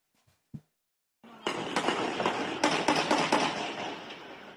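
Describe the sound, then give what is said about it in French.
Gunshots ring out at 11 p.m. in quartier 20, a neighbourhood of Nîmes, France: after a soft thud, a rapid, irregular string of loud, sharp cracks rises over a dense, rumbling wash of noise for several seconds, with no voices. “Des bruits de tirs retentissent dans le quartier 20.”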